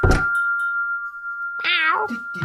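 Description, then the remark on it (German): A male cat gives a single drawn-out, wavering meow, fairly loud, after a brief thump, with a faint steady ringing tone in the background. “Hallo Kater.”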